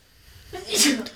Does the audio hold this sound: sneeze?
yes